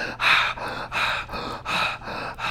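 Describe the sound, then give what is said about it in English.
A voice imitates out-of-breath gasping, a quick rhythmic run of about five breathy, huffing pants with no talking, like an exaggerated winded ad lib from a rapper's old songs. “you gonna hear that mm-hmm. out of mm-hmm. breath shit, you know what I'm saying?”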